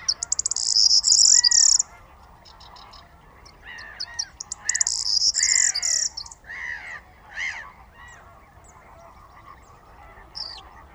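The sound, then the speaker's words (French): A corn bunting, waking at dawn at a night roost in reeds, sings in short, dry jangling bursts, with repeated chirping calls between phrases against a quiet outdoor background. The bird sounds clear, with no voices. “Réveil d'un Bruant proyer”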